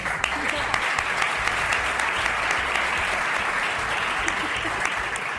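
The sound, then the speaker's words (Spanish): Steady, dense applause from an audience for a fellow panelist as the show's host says goodbye, a continuous wash of many hands clapping at even loudness throughout, with no voices standing out above it. “Señor Arturo, un aplauso, por favor.”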